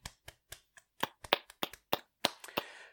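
Hand clapping in celebration of video game news: about a dozen sharp, crisp claps in an uneven rhythm, sparse at first, then quicker and louder, ending in a brief flurry. No voices.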